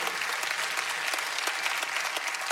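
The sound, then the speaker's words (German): Steady audience applause given for God during a sermon fills the space, a dense wash of many hands clapping at once with no pauses, fairly loud and continuous throughout. “Lass uns Gott einen Applaus geben.”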